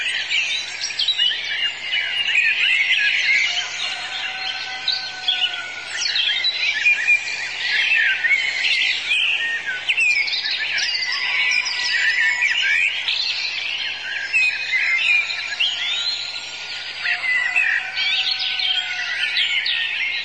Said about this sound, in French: Donc nous allons écouter le pinson de vinca.